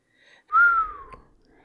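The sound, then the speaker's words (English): A person gives a single clear whistle lasting under a second that glides gently downward in pitch, an impressed, surprised whistle on seeing the security cap and price tag of a wine bottle, with no talking around it. “She whistled when she saw the security cap and the price tag.”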